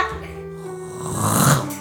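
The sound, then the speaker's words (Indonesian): A voice imitates snoring with a rough, rattling drone that swells in the middle and fades, a single drawn-out snore-like breath. “Ntar ngorok saya surround lagi.”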